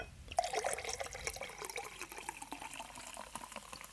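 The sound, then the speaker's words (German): Fever-Tree tonic water pours steadily into a glass for several seconds, a bubbly splashing and fizzing stream that gradually settles into lighter trickling and popping bubbles. “natürlich das gute Fever Tree, Fever Tree Tonic Water. Hört man das?”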